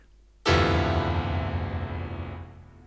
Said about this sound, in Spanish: Este tipo de sonido son muchos sonidos tocados al mismo tiempo. Esto es muy utilizado en todas las películas de terror o también muchas veces en las novelas para causar cierto dramatismo.